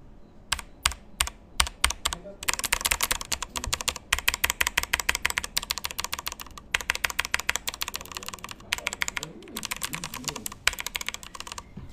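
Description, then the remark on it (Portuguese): Rapid, steady typing on a Corsair K95 Platinum linear mechanical gaming keyboard with Cherry Speed switches, with dense bursts of sharp keystroke clacks. A few brief pauses break the rhythm, and no one speaks. “Esse, no caso aqui, é do Corsair K95 Platinum, que no caso aqui ele é o Cherry é, Green, tá?”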